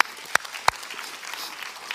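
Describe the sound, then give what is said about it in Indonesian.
Applause from a group, a steady wash of clapping with two sharp, louder claps standing out early on; no one speaks over it. “Kamu berikan tepuk kita.”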